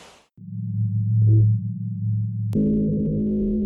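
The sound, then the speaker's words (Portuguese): Antarctic ice recorded by seismic sensors: a steady, low humming drone with layered tones, interrupted by a sharp click before shifting into a richer, eerie droning hum. No talking. “O som que você está ouvindo ao fundo aqui foi captado por sensores de abalos sísmicos na Antártica.”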